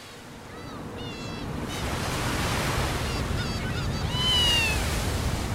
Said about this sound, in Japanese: 日が長くなったわね7時半なのに西の空がまだうっすら明るいわ6月の鎌倉の夕暮れ時の海辺って風が気持ちいいですね